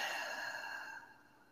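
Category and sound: human body sound, deep slow breath in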